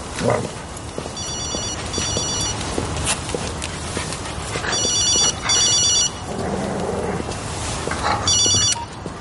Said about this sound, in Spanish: El teléfono de Ali suena. Él lo saca de su bolsillo y lo mira extrañado.